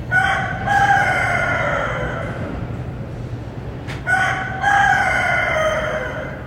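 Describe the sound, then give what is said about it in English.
A rooster in the Tenderloin neighborhood crows loudly, two long drawn-out cock-a-doodle-doos separated by a short pause, with a low steady hum of background noise underneath. “Yeah, you're hearing it right. That's a rooster.”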